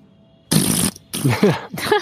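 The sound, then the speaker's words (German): A person makes wet, squelchy mouth noises imitating a slimy gelatinous creature, three gurgling bursts in quick succession, fairly loud with brief gaps between them. “Die, äh, diese gelattartige Kreatur. Ich brauche mal ein Geräusch für die.”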